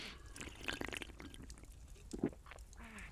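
Drinks are poured and sipped after a toast: liquid pours in short splashing bursts, with a few light glassy taps and quiet sipping sounds; no one speaks, and the noises stay soft against a low background hiss.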